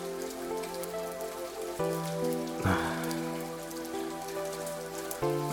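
Steady rain falls continuously, a dense patter of drops mixed with soft musical tones in the background, with a brief louder splash or rustle around the middle.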